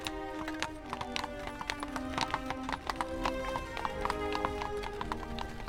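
Hooves of an open horse-drawn carriage carrying King Leopold I and the town council clip-clop in a steady, brisk rhythm of sharp repeated knocks as it stops at the house of Hendrik Conscience, with a low rolling rumble of wheels beneath and a faint murmur of voices.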